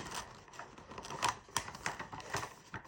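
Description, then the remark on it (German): Wrapping paper crinkles and scrapes as it is pulled over a cardboard box to check whether it is long enough, with a series of sharp crackles and rustles spread unevenly over a few seconds, no voices. “Ich ziehe mal eben das Papier rüber, um zu sehen, ob es reicht.”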